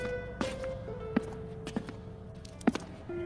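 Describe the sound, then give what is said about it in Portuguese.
Slow, deliberate footsteps of someone walking slowly through the dark corridors of a school at night, about five distinct steps at uneven intervals, over a faint steady hum, with no one speaking. “caminha lentamente nos corredores escuros do colégio.”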